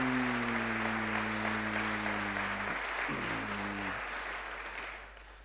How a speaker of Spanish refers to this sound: Vamos, si crees, aplauda fuerte ahí al Dios.